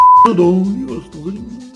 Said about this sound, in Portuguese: Deu umas bipadas aí pro pessoal entender.